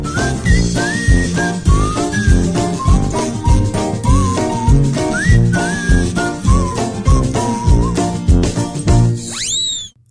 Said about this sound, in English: And I do hope you like our brand new theme tune as well. That will be in your head hours after you finish listening to the podcast. I can guarantee it.